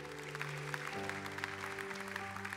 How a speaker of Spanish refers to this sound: Dale un fuerte aplauso a Dios por su presencia.